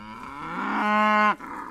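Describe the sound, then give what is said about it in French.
A single loud Highland cow moo, rising and holding for over a second before breaking off abruptly, followed by a brief softer tail of the call. “je travaille avec des vaches. Donc euh, j'ai démarré avec les vaches Highland parce que voilà, je voulais euh, des vaches rustiques.”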